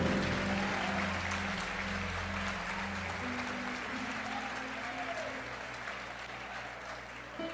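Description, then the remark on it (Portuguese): An audience applauds Jesus loudly and steadily, a dense wash of clapping holding for several seconds while a low sustained organ or keyboard tone plays underneath. “Bem forte, aplaude Jesus.”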